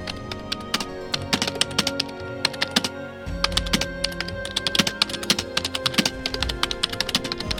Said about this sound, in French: L'impressionnant dossier à ses côtés, il se mit à faire ce qu'il savait faire de mieux. Pianoter à toute vitesse sur un clavier afin de déjouer toutes les sécurités informatiques existantes.